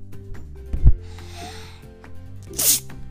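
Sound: child sneezing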